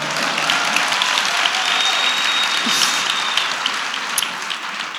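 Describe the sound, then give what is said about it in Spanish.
An audience breaks into steady, sustained applause, a dense wash of many hands clapping at an even loudness for the full five seconds with no voices standing out. “Este era un aplauso tan fácil que sabía que...”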